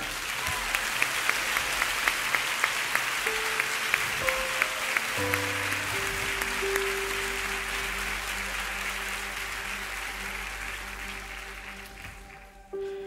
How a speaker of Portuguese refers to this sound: Vamos aplaudir, irmão?